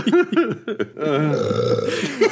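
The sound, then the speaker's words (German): A long, drawn-out burp rumbles for over a second, preceded by a few short voiced sounds and ending with a brief vocal trail-off. “Jetzt ein Trauerrülps, Alter.”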